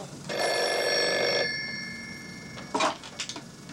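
A bookstore's telephone bell rings once in a bright, metallic burst lasting about a second, its tone lingering and fading, followed by a brief clatter of handling sounds as the receiver is picked up.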